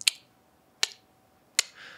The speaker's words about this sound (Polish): Jak mu się nic nie chce, siada w biurze, patrzy na taki duży zegar, który ma na ścianie, który ma bardzo głośny sekundnik. I jak słyszy to,